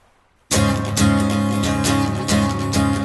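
After a brief silence, a loud, bright radio jingle bursts in: full-band music with steady beats and sustained chords, carrying on at an even, punchy level with no voices.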